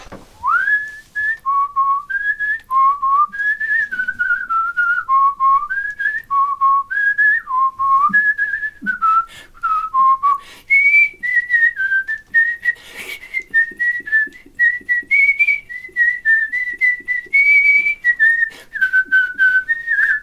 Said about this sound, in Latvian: Tagad jūsu kārta kaut ko parādīt parādīt no jūsu skaistās svilpošanas.